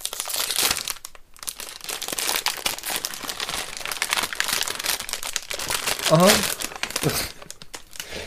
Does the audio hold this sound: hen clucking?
no